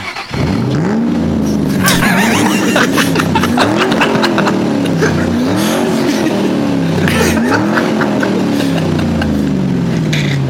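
A racing car's engine roars loudly and continuously, its pitch climbing and dropping through repeated shifts, with bursts of screeching tires as it speeds by.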